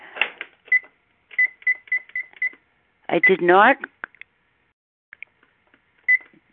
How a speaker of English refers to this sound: Let me set my three minute timer here.